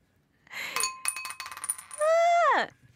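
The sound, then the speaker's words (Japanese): A yellow die, rolled by one person alone, clatters across a hard tabletop in a quick run of sharp clicks and rattles, then settles showing two; a short falling vocal sound follows at the end. “なので、一人でサイコロ振ります。”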